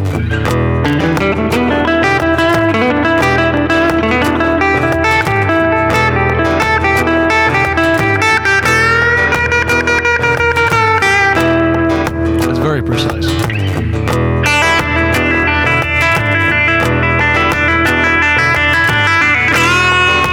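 An electric guitar set to its straight electric clean voicing plays a continuous, busy passage of chords and single notes, loud, with bright ringing tones and held notes around the middle, with no talking.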